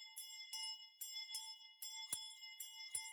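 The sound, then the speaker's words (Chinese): At night, a bell rings over and over in quick, steady strikes, about seven in three seconds, and the ringing goes on for several hours. Each clang is bright and metallic, with a humming tone that lingers between hits. No one speaks. “铃声就这样持续了好几个小时，夜晚仍旧一片漆黑。”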